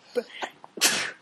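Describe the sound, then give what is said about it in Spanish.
A single sharp sneeze bursts out, preceded by a short catch of breath, with a sudden loud hissing rush of air that trails off quickly. “Salud.”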